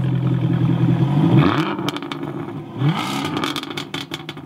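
A deep V8 car engine revs hard twice, the burbling idle rising into loud throaty surges, each followed by crackling and popping as the revs drop. Loud, with no voices.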